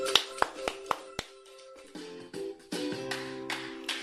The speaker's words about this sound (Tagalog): Bigyan ng limang palakpak ang sarili.